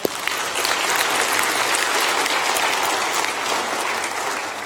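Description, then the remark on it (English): An audience at a church service claps steadily and fairly loudly to welcome a pastor on stage, a dense wash of hand claps that holds for several seconds without voices breaking through. “Would you welcome William this morning?”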